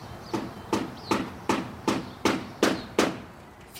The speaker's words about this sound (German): Baugerüste stehen vor alten Häusern, von denen der Putz abplatzt, Dächer werden neu gedeckt, Fassaden gedämmt oder moderne Fenster und Türen eingesetzt. Das Bohren und Hämmern der Handwerker ist in den Straßen zu hören.